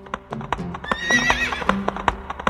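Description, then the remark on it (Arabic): Rapid, steady hoofbeats clip-clop in a brisk rhythm while a horse lets out a high, wavering neigh midway through, the whinny rising over the loud, continuous thudding of hooves. “ما اجمل هذه الفكره فحقا حركه الخيول الجامحه تشبه الطيران بلا جناح”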